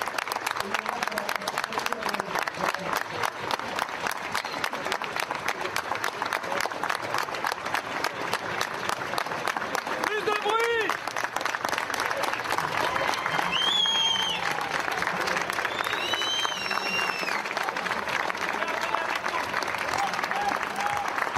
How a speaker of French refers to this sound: Mais regardons cette séquence, c'était à 20h donc. Pendant une minute, on va applaudir une étoile, Antoine Aleno pour lui.